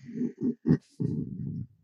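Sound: voice imitating snoring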